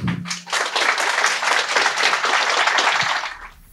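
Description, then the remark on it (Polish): Sustained audience applause for the guests at the end of a discussion, many hands clapping in a dense, steady crackle for a few seconds before tapering off near the end. “E, olbrzymie brawa dla nich.”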